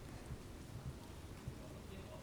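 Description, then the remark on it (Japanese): Steady rain falls outdoors in a park in Kitano, a soft continuous hiss with scattered low thumps of drops landing, fairly quiet and unbroken throughout. “今日は雨が降っています”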